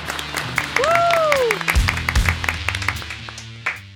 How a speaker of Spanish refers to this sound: Un aplauso